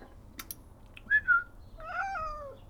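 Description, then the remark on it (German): A cat meows close to the microphone: a brief two-part chirping mew, then a longer, wavering meow that trails off. No one speaks. “Katze, was sagst du?”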